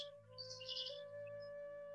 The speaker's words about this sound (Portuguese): E a única verdadeira realidade é este momento este agora, este pássaro cantando, nosso estar sentados, nossa respiração deste momento.